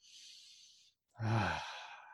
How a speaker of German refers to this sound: Atmet erstmal schön tief ein und aus, weil das fehlt uns häufig auch im Alltag, weil es immer so gestresst ist.